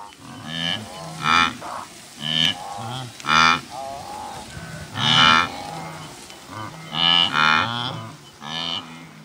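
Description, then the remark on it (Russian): Wildebeest call out again and again in nasal, moo-like grunts, several overlapping as if from a herd. The bursts come in irregular clusters, fairly loud, with no talking. “Это была антилопа гну, и у нее самая длинная грива в природе.”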